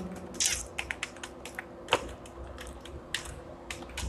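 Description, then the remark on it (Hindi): Quick, irregular keystrokes clatter on a computer keyboard, a dozen or so light clicks with one sharper tap near the middle, alone without any voices, as a UPI ID is typed into a payment page while buying a domain. “यहाँ पर नीचे मैं यू पी आई के साथ जाऊँगा आपका जो भी यू पी आई है वो या यू पी आई यहाँ पर डाल दो मैं अपना यू पी आई डाल देता हूँ”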